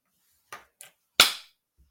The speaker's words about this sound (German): Uh, muss, ich da, muss ich da jetzt irgendwas machen? Einmal in die Hände klatschen.